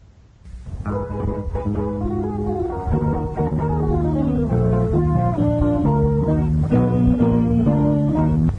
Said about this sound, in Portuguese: Dia 21, no próximo feriado, sexta-feira, aniversariante é a Jacuipense da Bahia, o Riachão de, de Jacuípe. E a gente vai escutar o hino agora do, do Jacuipense.